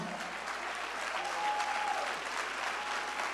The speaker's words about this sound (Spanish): Si usted va a dar un aplauso.